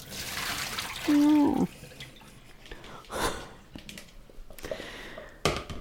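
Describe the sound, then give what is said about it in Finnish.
Cold tap water runs and splashes as something is rinsed, with a short squeaky tone early on and intermittent sloshing and clatter afterward. “Ja sitten sen jälkeen kylmää vettä.”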